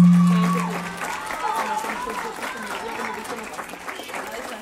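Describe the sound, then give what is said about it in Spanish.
An audience applauds steadily for several seconds to welcome the Orquesta Infanto Juvenil de la Florida before it plays, a dense wash of clapping at moderate volume, with voices calling out over it and a brief low tone at the very start. “Vamos a darle, antes de que empiecen, un aplauso a todos los que vinieron a vernos hoy.”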